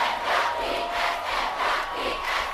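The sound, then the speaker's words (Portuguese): A loud audience cheers and shouts continuously, a dense wash of many voices swelling in waves, with no single speaker standing out. “Estão ouvindo? Eles gritam por nós.”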